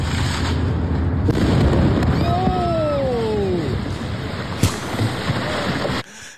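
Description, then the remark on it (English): A house explosion in the city of Elyria, captured on body-cam video: a dense, rumbling roar fills the whole recording, with whining tones sliding downward midway and a sharp bang cracking through shortly before it cuts off. “Nah, watch this explosion.”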